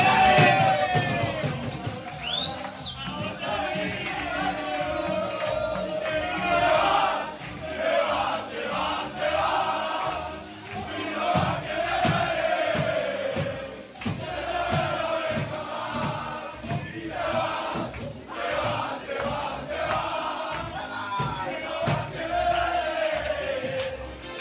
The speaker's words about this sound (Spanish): El sonido de la celebración en el vestuario de Cartagena de la plantilla del Elche Club de Fútbol de esa importante victoria.